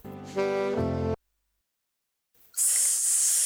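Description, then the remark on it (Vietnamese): A saxophone plays two short, loud sustained notes for about a second, then cuts off into silence before a steady burst of bright hissing noise starts. “Saxophone. chính xác”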